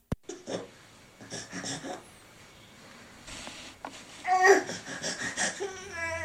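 Whiny, wavering cries of a baby fussing, starting with soft breathy whimpers and swelling into louder, drawn-out wails near the end, with no talking over them.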